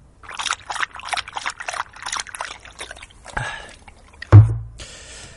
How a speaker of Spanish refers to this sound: un momento. Voy a beber un poco de agua. Perdón.